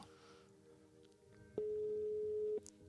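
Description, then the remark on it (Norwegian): A single electronic ringing tone of an outgoing phone call placed from DMU sounds for about a second, a steady pitched beep over faint background hum, then cuts off. “Det ringer i hvert fall.”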